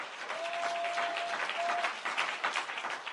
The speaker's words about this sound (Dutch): Zullen we hier even een geweldig applaus geven deze, deze morgen?